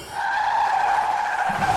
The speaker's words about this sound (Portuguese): Está passando na sua rua o carro do ovo.